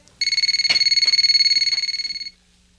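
signal or alarm, phone ringing

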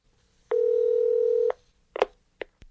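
signal or alarm, telephone dialing and ringing

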